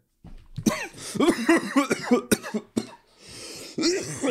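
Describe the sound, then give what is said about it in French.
A person coughs hard several times in a rough, hoarse series of bursts, fairly loud, before trailing off into breathy wheezing and rasping breaths. “Putain, y a un cancéreux qui tousse là.”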